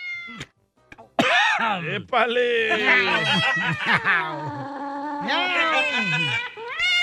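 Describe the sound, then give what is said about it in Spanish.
A person telling a joke loudly imitates two cats meowing, with long, wavering, whiny meows that rise and fall in pitch, following a short spoken exclamation at the start. “Estaban dos, este, dos gatos, ya Y ahí estaban. Miau, miau.”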